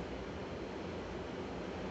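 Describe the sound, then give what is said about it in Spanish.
A steady, even roar of ocean surf with waves washing continuously, fairly soft, with no distinct individual crashes and no voices. “Te pido por favor que escuches la naturaleza, la fuerza del mar. Es maravilloso.”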